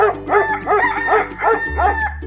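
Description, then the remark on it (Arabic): A rooster crows in a quick series of about six rising-and-falling calls, loud and clear, over a faint low hum, with no voices. “في يوم من الأيام كان هناك كلب وديك يعيشون معا في المزرعة”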